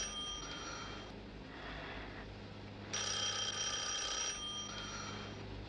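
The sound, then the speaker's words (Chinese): A telephone rings in repeated bursts of a bright, high electronic trill, with a loud longer burst in the middle and shorter ones around it, over a low steady hum. “用不着接这些无聊的电话”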